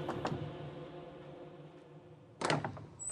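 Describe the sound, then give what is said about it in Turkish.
Two sharp knocks on a door off a corridor, a short pause, then a louder quick cluster of knocks and thuds, with no one speaking. “Koridorda bekleyen Bayazıt hızlı adımlarla gelip Cihangir'in önünde beklediği kapıyı çaldı.”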